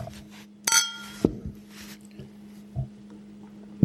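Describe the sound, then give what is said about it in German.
Beer glasses clink together once in a toast of "Prost" at the Zypresse on Westbahnstraße, a bright ringing chime that fades quickly, followed by a few soft knocks against a low steady background hum. “Okay, Prost.”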